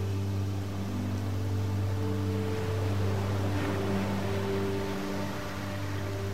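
A steady rushing wash of sea water at the island of Corfu, Greece, on the Ionian Sea, with a constant low mechanical hum running underneath, like a boat engine, throughout the whole stretch. No one speaks.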